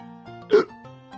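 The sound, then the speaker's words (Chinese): One sharp, sudden hiccup from George, the cartoon pig in Peppa Pig, still hiccuping after trying Peppa's cure, brief and fairly loud, standing out over a faint, steady musical background. “佩奇的办法不太管用，乔治乖乖的照做了，可他还是在打嗝。”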